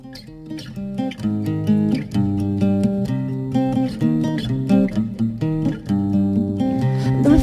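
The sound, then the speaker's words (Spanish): Acoustic guitar strummed alone in a steady rhythm, playing a Spanish-language version of a song, fairly loud, with bright chord attacks ringing over a warm low end and no voices. “Yo, para que la entendáis bien todo el mundo desde casa también, he preparado una versioncita con la guitarra en español.”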